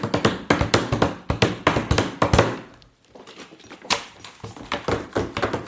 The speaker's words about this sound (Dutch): Een doosje vitaminepillen tegen een vaas.